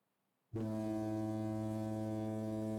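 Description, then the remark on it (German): A loud, sustained foghorn blast, the signal to start sprinting in a workout, starts abruptly after a half-second of silence and holds steady to the end, deep and droning with rich harmonics, no voices present. “Du gehst in die 90 Grad Position und wenn du gleich das Nebelhorn hörst, dann sprintest du los.”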